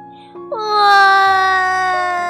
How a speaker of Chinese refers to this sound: 哇！棒棒虎又哭了。